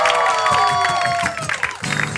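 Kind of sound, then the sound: crowd, audience applause and cheering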